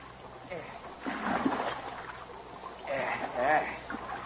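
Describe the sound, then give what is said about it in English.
Two men row a boat on Lake Malaren in Sweden toward a barge anchored well out in the lake: oars dip and splash through water in two unhurried strokes about two seconds apart, moderately loud over a low, steady background rumble. “are ring a boat, heading towards a barge anchored well out in the lake”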